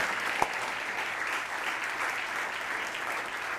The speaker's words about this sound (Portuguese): Enquanto a igreja louva o Senhor, vamos aplaudir ao Senhor a festa nos céus.